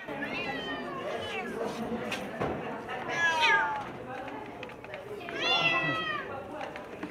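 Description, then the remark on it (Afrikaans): A cat meows twice, each a drawn-out, wavering cry a couple of seconds apart, clear over a steady background of murmuring voices. “They are very easy to, to look after, just like a normal cat.”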